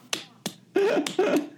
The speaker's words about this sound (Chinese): 稀薄的掌声送给你。